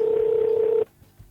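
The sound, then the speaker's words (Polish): A telephone ringing signal for a phone call relayed over FM radio: one steady, mid-pitched electronic tone that holds loud and even for under a second, then cuts off abruptly, leaving only faint background noise. “uwaga, dzwonię. Dzwoń.”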